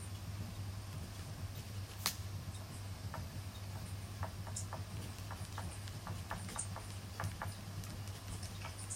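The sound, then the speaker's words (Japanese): Quiet, irregular scratches and taps of a pen writing notes on scrap paper during a one-minute timed note-taking exercise, over a steady low electrical hum, with no voices. “あこれなんか書く音が聞こえるっていいですね”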